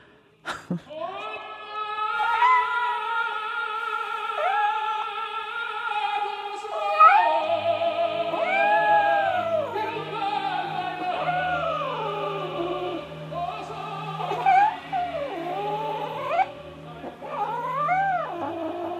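A cat meows in long, drawn-out yowls, its pitch sliding up and down through several wailing calls. The cries are loud, with a low steady hum underneath in the second half.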